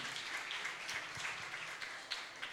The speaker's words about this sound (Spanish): Un aplauso para el Señor porque Él lo hizo.